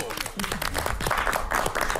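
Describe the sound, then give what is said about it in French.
Studio audience applause: a dense, steady burst of many hands clapping at once, held at an even, fairly loud level for a couple of seconds. “C'était l'arnaque du jour et on applaudit Charlotte Méritant.”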